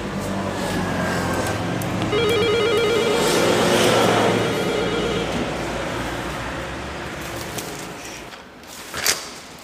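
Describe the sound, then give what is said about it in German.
An electronic doorbell at the front door of a home, reached through a parking garage, rings in a rapid, warbling trill for a couple of seconds over a steady rumble of traffic, then a brief knock-like thud near the end. “Sollen wir hier schnell läuten?”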